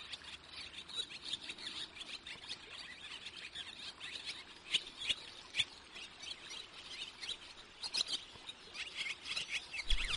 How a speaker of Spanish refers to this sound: Esta vez la golondrina, a que la conoces. Aunque cría en los aleros de algunos edificios, esta especie, que es migradora, como sabemos, hace mucha vida en el río, buscando insectos, recolectando barro para su nido y, por supuesto, bebiendo agua.